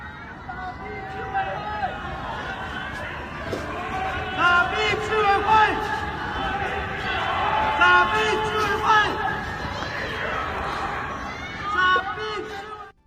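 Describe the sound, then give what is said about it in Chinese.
In early April, residents of the Baoli Ye residential compound in Shanghai shout together in unison because their living supplies are not guaranteed. The many voices make a loud, sustained crowd din, rising and falling in waves for about thirteen seconds before cutting off abruptly. “四月初，上海保利叶小区的居民由于生活物资得不到保障，自发齐声高喊。”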